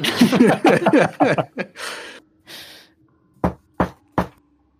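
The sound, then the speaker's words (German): Three quick, sharp knocks in an even rhythm, given as a signal, following a stretch of laughter and breathy chuckling. “Dreimal klopfen, vielleicht.”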